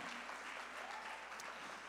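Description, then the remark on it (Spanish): A crowd claps steadily, dense overlapping applause filling the whole moment at an even, sustained level with no voices standing out. “Abróchate el cinturón, dale un aplauso.”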